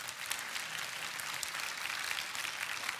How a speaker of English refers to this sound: And you should clap about that.